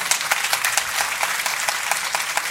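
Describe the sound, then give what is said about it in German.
An audience applauds steadily, a dense, bright patter of many hands clapping at once with no pauses, holding an even loudness throughout. “Genau, Ihr Applaus.”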